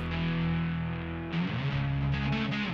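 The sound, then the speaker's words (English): A distorted, droning guitar tone from accidentally bumping a guitar, looped for a song, sustains, then shifts pitch midway into a repeating, pulsing pattern, loud with no voices. “I bumped my guitar, it made that sound. I liked it. I looped it, put it in the song.”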